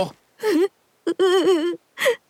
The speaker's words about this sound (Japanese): しんべヱは道端に座り込みしくしくと泣き出しました